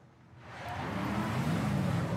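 car engine driving

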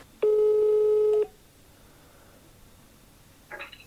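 phone call ringing tone

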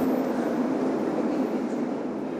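subway train running

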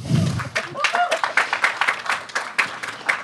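audience applause

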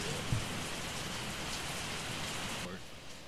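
heavy rain

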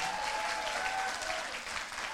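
loud applause

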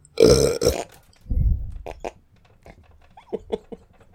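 burp

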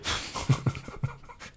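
dog panting

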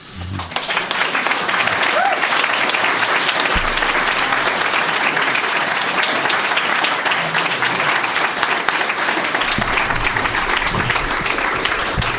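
audience applause

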